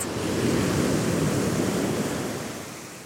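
Steady roar of sea surf mixed with gusting wind on the Wadden Sea mudflats, a broad continuous wash of noise that swells slightly and eases off toward the end, with no voices present.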